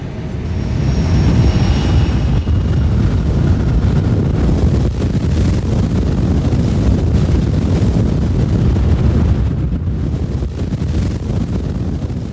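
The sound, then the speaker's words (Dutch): A loud, steady airplane engine drone fills the whole stretch, heavy low rumble mixed with buffeting wind noise, continuous with no voices, as a skydiver drops out of the plane into the dark. “Mats laat zich uit het vliegtuig vallen. Het donker in.”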